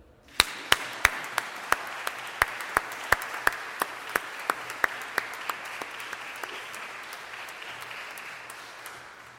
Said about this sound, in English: And if by chance you feel a deep sense of accomplishment, and if by chance you're moved by all that you've done, all that you've come through to bring you to this very place, I want you to extend a warm and hearty round of applause for yourselves.